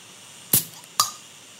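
Two sharp, bright pops about half a second apart, like a flip-top beer bottle being snapped open; the second briefly rings with a faint glassy tone. No one speaks.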